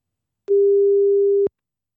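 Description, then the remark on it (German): A single steady telephone ringing tone sounds for about one second, clear and moderately loud, starting and stopping abruptly with silence on either side and no voices. “Das merke ich am Telefon”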